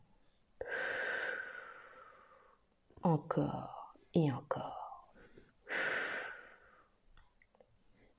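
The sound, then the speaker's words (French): A voice makes two long, slow, breathy exhales, blowing out steadily to make a wall of bubbles underwater in the sea, with a short spoken phrase between them. Moderately loud, with quiet pauses around. “Elle se concentre du mieux qu'elle peut pour faire un joli mur de bulles en expirant tout doucement.”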